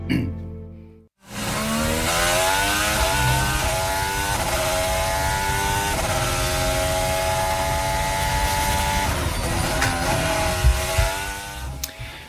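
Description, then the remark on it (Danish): A high-pitched Formula 1 race car engine screams loudly and steadily, its tone rising and falling as it revs through gears for about eleven seconds after a brief quiet start. “Sådan lyder det snart rigtig meget, for Formel 1-sæsonen er så småt kommet i gang med præsentation af bilerne”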